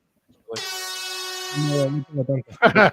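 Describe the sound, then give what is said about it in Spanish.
A single loud, buzzy vuvuzela blast holds steady for over a second, brash, then cuts off as people start talking. “La bubucela.”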